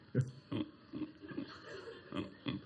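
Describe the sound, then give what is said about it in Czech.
A person imitates a pig, making a quick series of short, low, throaty grunts, about six or seven snorts in an uneven rhythm, with no other talking. “Ty jsi člověk a chrochtáš taky.”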